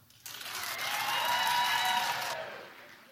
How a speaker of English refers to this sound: Should she suffer? All right, clap if you think she should suffer.